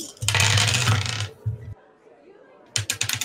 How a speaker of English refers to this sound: That's a lot of dice. Yeah. mine's up. Jesus, how many sixes did you roll?